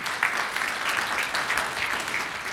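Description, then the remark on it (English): A church audience at Church of the Red Door applauds for Jesus, many hands clapping together in a dense, continuous patter at moderate loudness, with no voices standing out. “I mean, you want to clap or something? I mean, you know, let's clap. Let's just clap for Jesus.”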